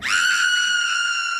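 A woman's shrill, terrified scream rises sharply and holds at a high, piercing pitch for over a second, loud and close, with no talking around it.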